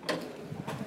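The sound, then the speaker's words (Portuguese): A steady mechanical rumble of an escalator mechanism on the boarding stairway that connects land to a boat, with two sharp rattling clicks breaking through the continuous grinding hum. “Esse é o barulho da escada.”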